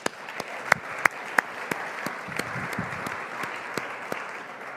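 An audience applauds steadily, a dense wash of many hands clapping with a few sharper, louder claps standing out near the start, continuing at an even level with no one speaking.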